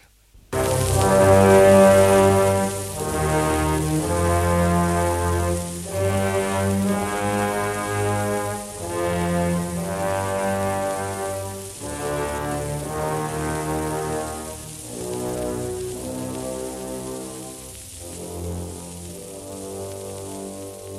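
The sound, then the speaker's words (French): An orchestra plays Johann Sebastian Bach's passacaglia before the curtain rises, slow, with sustained full chords over a deep bass line that repeats in steady, even phrases. The music is loud, with no voices. “Avant le lever du rideau, l'orchestre attaque la passacaille de Jean-Sébastien Bach.”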